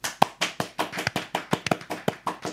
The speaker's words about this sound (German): Hammer, dafür gibt es einen spontanen Applaus.